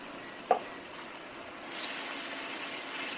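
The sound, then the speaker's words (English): Tomato paste caramelizing and sizzling in a hot pan, a steady bright crackling hiss with no talking. A short knock sounds early on, and the sizzle grows slightly louder partway through. “Alright, so what I did was turn my heat down a little bit because the um, tomato paste is caramelizing pretty quickly and I don't want it to uh, do that.”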